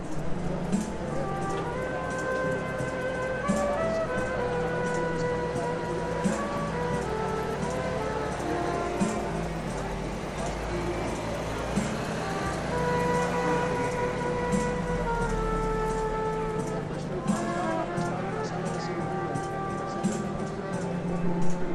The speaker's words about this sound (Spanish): Tan pronto empieza a tocar el de la trompeta, que es la que más se oye, lo, te dejaría oírlo un, un poco. Ahí va.